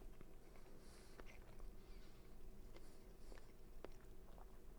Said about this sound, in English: I wasn't delaying, I was swallowing for all the audio listeners.